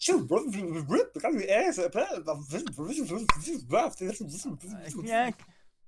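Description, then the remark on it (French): A voice imitates a tape rewinding by mouth with rapid, squeaky, warbling pitch swoops for about five seconds, then cuts off abruptly as a second person makes a short vocal imitation of a stop button; a sharp click sounds midway. “je te propose de faire un rembobinage euh, manuel, d'accord Donc je vais le faire à la bouche.”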